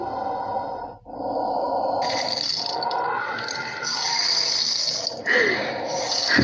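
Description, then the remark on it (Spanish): Rain falls at night in a steady, dense hiss that fills the whole clip, loud and unbroken apart from one brief dip early on, with no voices. “Y ahora llueve, ¿a dónde voy?”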